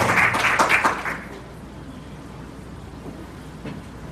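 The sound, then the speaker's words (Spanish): A church audience bursts into a short round of applause for the word of the Lord after a prayer, dense clapping that swells for about a second and then quickly fades away into quiet. “Vamos a dar un fuerte aplauso a la palabra del Señor.”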